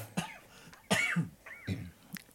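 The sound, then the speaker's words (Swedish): A person coughs three times in quick, uneven bursts, fairly loud, with a raspy throat-clearing quality, from something caught in the throat. “Ja, jag fick, en, jag fick någonting i halsen här.”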